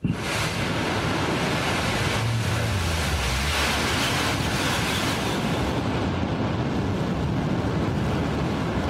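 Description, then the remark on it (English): A New Shepard rocket's engine roars with a deep, crackling rumble continuously at liftoff as it clears the tower in the West Texas desert, loud and unbroken for the whole stretch, with heavy low-end thunder and no voices over it. “Listen to that engine rumble.”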